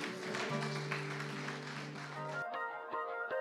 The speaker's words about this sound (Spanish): Denle un aplauso, iglesia.